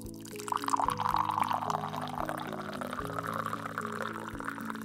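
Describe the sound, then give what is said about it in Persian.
Brewed tea pours steadily from a teapot into a small tea glass (estekan), a continuous liquid stream with a rising pitch as the glass fills, over a faint low hum, with no one talking. “حالا همینطور که انگشتانت رو دور دسته قوری حلقه میکنی و وزنش رو توی دستت احساس میکنی کمی خمش میکنی و چای دم کشیده رو توی استکان میریزی و به باشکوه ترین قسمت نمایش زیافت دعوت میشی یعنی به بازی بخار و نور و صدای چای”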